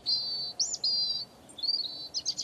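A European robin sings at dawn as it grows light, a run of high, thin warbling phrases with brief pauses between them, clear, with no voices present.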